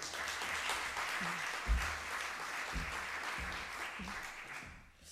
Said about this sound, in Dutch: Ook graag applaus voor hem.